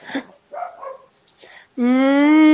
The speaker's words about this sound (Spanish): Yo pensé, que, lo, que tú lo tienes eran gatos, pero parece que lo que tienes son perros, güey. Sí, ya sé, son los perros de los vecinos.